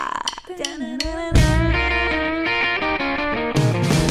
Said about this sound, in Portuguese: Solta a vinheta!